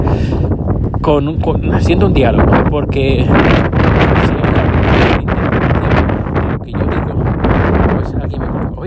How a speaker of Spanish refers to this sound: perdón por el viento